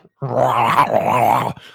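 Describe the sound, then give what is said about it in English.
A voice imitates a creature growling inside its binding in a containment unit, a single sustained, rumbling groan lasting over a second, fairly loud, with a wavering pitch and no other sounds around it. “like growling around inside its binding from this containment unit.”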